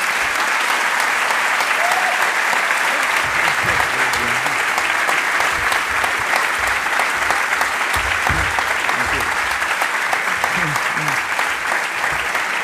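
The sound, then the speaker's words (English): Sustained audience applause, a dense steady patter of many hands clapping at a loud, even level throughout, with faint murmurs of voices mixed in. “Now I will, to answer your applause, I will use another of my old standard jokes, which is like, you know, don't applaud too much spare your energy.”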